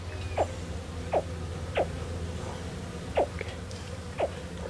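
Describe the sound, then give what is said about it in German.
A baby alligator only a few weeks old, in a muddy swampland, gives five short, chirpy grunting calls at irregular intervals, each a quick downward-sweeping yelp, against a low, steady background hum. “Oh, hört ihr das? Und da sieht man es auch, da ist ein Alligator-Baby.”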